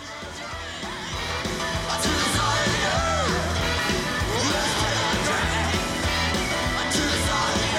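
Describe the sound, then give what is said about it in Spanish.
A rock singer screams and yells over a loud, driving band at a live show on 17 December 1989, the raw voice wailing in long rising cries above heavy drums and bass for the whole stretch. “Ahí, ahí empezaron los gritos.”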